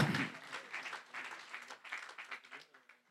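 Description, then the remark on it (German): A crowd applauds steadily for a few seconds, many overlapping claps forming a dense, bright wash of sound that rises and dips without a clear rhythm. “Hey, lasst uns nochmal allen zusammen einen Applaus geben, weil da gehört, da gehört auch”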